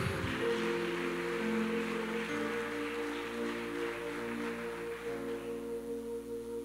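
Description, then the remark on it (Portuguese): An audience claps steadily during a sermon, giving a loud round of applause to the Lord, in a dense, crackling wash of applause that thins slightly toward the end, while sustained keyboard chords hold underneath. No one speaks. “Pode dar uma forte salva de palmas ao Senhor.”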